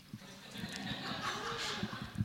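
A horse whinnies in a shrill, wavering call that rises and falls for a couple of seconds, loud with a faint muffled background.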